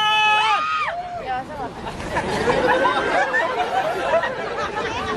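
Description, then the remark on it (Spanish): High-pitched shrieks from several women in the audience of a live show burst out at once as a performer is introduced, then fade into a loud, excited crowd hubbub of chatter and cheering that fills the rest of the moment. “Para todos ustedes, él es conocido como el papi de papi y las chicas gritan.”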